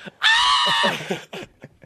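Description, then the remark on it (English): A voice imitates the panicked scream let out after catching a ball with a player running full speed at them: one loud, high, strained shriek held for about half a second, trailing into breathy chuckling sounds. “And I think I screamed something like this.”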